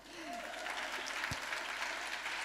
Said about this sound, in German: Und ja, das ist ein Applaus wert.